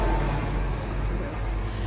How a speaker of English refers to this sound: here comes a bus. Mm-hmm, that's a school bus. It's very loud.